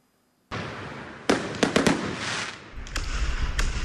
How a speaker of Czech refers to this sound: Společně se díváme na náš novoroční ohňostroj, který pro naše spoluobčany pořádáme s velkou tradicí a to již od roku 2000, od nového milénia. A momentálně se nacházíme v parku před naším kostelem a zámkem, odkud právě město Smečno odpaluje novoroční